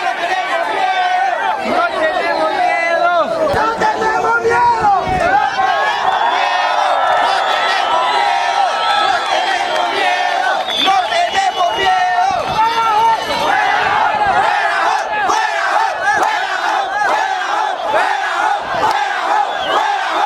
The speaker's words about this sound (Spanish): se instalaron frente al río y su primer impulso fue cantar dos veces el himno nacional de Honduras y lanzar consignas reivindicando su derecho a migrar por el continente americano. Sin embargo, la principal proclama fue, no tenemos miedo.